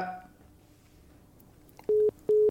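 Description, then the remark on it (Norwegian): On a call-in radio show, a phone line goes quiet after the caller hangs up, then a busy tone starts: two steady, mid-pitched beeps of equal length with short gaps, clear and loud against a low hum. “Ja, han la bare litt på.”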